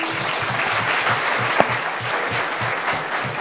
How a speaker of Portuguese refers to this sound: palmas para ele.